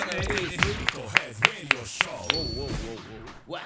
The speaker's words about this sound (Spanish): Gracias, …. Un aplauso. Un aplauso.